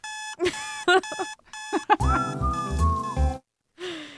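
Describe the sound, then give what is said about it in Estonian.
An alarm clock rings with bright, electronic chirping tones: a few quick bursts, then a longer sustained warble over a pulsing low beat, and a final short tone. It is loud, with no talking. “aga see on mingi äratus küll.”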